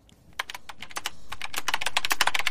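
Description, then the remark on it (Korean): Rapid typing of random keys on a computer keyboard by a radio DJ, used as a sound effect, a dense flurry of crisp clicking keystrokes growing slightly louder and faster, with no voices. “키보드 소리군요.”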